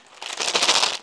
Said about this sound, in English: that is the sound of dice. I bought 24 dice, or dadi, as in dadi, not daddy, mummy, daddy, mommy, daddy, but dadi, which is the Italian word for dice or cubes.